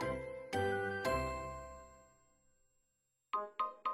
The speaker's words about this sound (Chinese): 替猫带上铃铛。